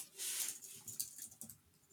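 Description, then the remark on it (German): Soft, irregular clicking of keys on a keyboard as someone types to look something up, a quick scattered run of quiet taps, with no talking over it. “Ich muss jetzt nur aufpassen, dass ich nicht gleichzeitig während dem Tippen spreche.”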